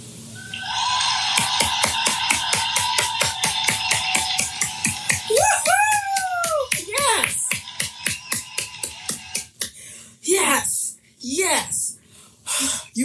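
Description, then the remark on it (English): Steady, rapid clapping keeps a regular beat for several seconds while voices whoop and cheer over it, then the claps thin out into scattered bursts of cheering. “So I'm going to give you guys the biggest round of applause right now.”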